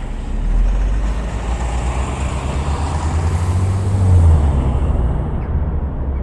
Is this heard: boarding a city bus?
yes